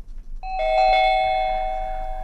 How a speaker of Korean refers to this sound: 벨 누르는 소리입니다. 아마 이 소리 들으면 어 우리 집인가 하고 나가시는 분도 계실 텐데요. 보물 소리입니다.